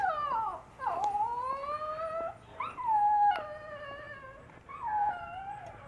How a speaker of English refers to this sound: That's a dog.